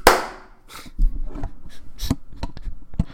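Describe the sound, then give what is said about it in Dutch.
A single sharp, loud hand clap made for syncing audio tracks rings out briefly at the start, followed by a few scattered softer knocks and clicks in otherwise quiet surroundings. “Op die boer of op de klap?”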